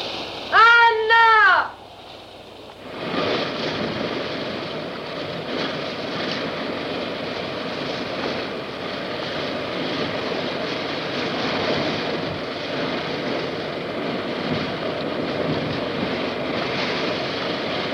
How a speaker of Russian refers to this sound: Море — полноценное действующее лицо. Оно то тихое, то бурное, то безмятежное, то опасное